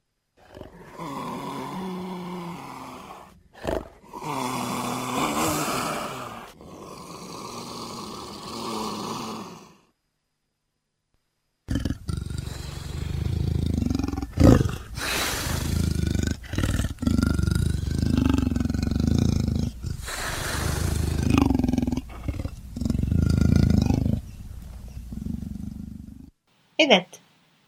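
A leopard roars loudly in a series of deep, rasping grunts, like a saw cutting wood, broken into long bursts with a short silent pause partway through.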